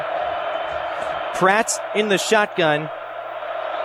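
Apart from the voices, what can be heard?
stadium crowd noise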